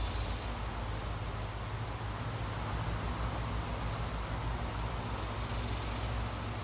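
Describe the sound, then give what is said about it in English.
A loud, steady drone of insects outdoors in Texas on a hot day fills the air, a dense continuous high-pitched buzz with a low rumble underneath, unbroken and machine-like like a generator for several seconds with no voices. “Outside in Texas at the insects sound like a generator.”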